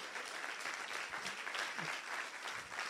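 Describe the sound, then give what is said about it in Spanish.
Steady, dense audience applause given for the mercy of God fills the whole stretch, a broad crackling wash of many hands clapping at once with no pauses and no voices standing out. “¿Cuántos le dan un aplauso a la misericordia de Dios?”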